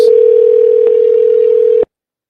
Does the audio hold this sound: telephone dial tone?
yes